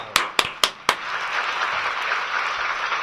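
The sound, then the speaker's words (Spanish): Four loud, evenly spaced claps ring out first, then give way to a steady wash of applause that continues at a moderate level to the end, with no voices. “aplauso, aplauso, papá.”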